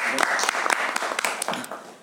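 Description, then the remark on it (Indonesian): An audience breaks into steady applause for a presenter after his introductory talk, a dense patter of many hands clapping at once, moderately loud and sustained before easing off slightly at the end. “Mungkin kita bisa kasih tepuk tangan”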